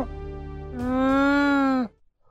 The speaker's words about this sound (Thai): เจ้ารามาก็ได้คำรามตอบด้วยเสียงอันฉุนเฉียว